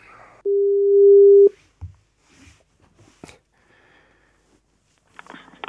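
A single steady phone tone, a loud mid-pitched beep lasting about a second, as a phone call is being placed, followed by quiet scattered clicks and faint rustling.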